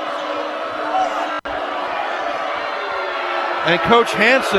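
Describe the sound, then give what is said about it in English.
A dense, steady roar of Big Sky fans booing at a basketball game fills the background throughout, with a brief sharp cut partway through and a commentator's voice rising over it near the end. “You can hear the boos in the background as they say that Shepard, or they, the Big Sky fans, feel that Shepard had possession.”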